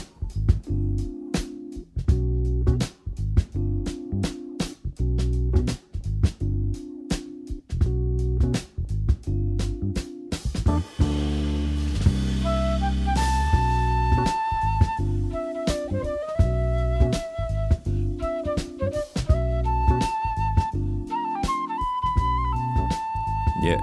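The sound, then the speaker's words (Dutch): Busy jazz drumming opens with punchy kicks and crisp cymbal hits, then a bright, agile flute line enters and solos over the continuing drums and bass. “Fantastische fluitist met een enorme staat van dienst”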